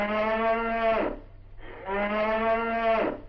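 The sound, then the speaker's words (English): A cow moos twice, two long, loud, droning calls of about a second each with a brief pause between, the second slightly longer, over a low steady hum. “well, Mrs. Munster must be fixing oxtail soup for lunch.”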